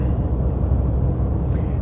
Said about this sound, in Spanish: Eh, madre mía, hay un tráfico increíble. Pero increíble.